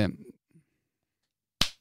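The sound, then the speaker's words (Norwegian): A single sharp hand clap of applause rings out loud after a brief stretch of laughter and murmured voice, followed by a short pause of near silence. “Applaus til eh, deg”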